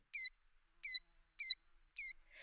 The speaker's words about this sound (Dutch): Misschien heb je hem zelf wel eens gezien. De ijsvogel.